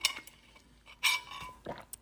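Someone drinking water: a few light, bright clinks of a glass or bottle being handled, with short scattered bursts and quiet pauses between them, and no talking.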